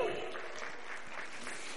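Audience applause for a woman being introduced as a psychologist and counselor at Casa sobre la Roca, a steady wash of many hands clapping at once, dense and crackly, holding at an even moderate level for the whole two seconds with no voices on top.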